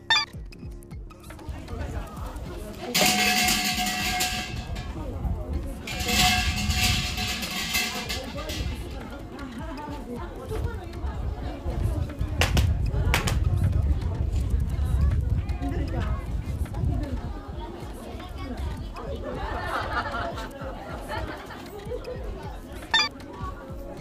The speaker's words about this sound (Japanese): そして初詣の神社の音